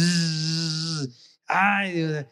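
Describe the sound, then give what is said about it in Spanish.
A voice imitates a buzzing mosquito flying past with a steady, droning hum, two fairly loud bursts of about a second each separated by a brief pause, with no speech. “Y de repente escucho que el zancudo pasa como un helicóptero, así,”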